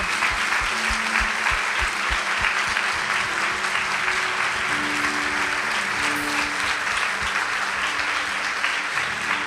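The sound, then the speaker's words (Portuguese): A church audience claps together in sustained, dense applause for people who stood after praying to declare faith in Jesus, staying loud and steady for the whole stretch, with a faint low hum of music or voices underneath. “Uma salva de palmas para essas pessoas que fizeram essa oração.”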